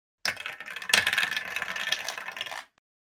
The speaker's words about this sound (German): Jetzt habe ich, keine Ahnung, Würfel weggeworfen.